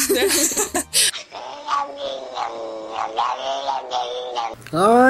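A cat meows in a long, drawn-out, wavering series of cries, fairly loud, with sharp louder yowls at the start and a rising meow at the end.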